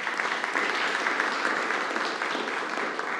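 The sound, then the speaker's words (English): A crowd claps steadily for a few seconds, a dense, even patter of many hands at a fairly loud level with no break or clear build. “Give her a round of applause, yeah.”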